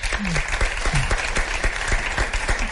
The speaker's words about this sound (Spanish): Voy a pedir otro aplauso para ella para que se venga un poco arriba.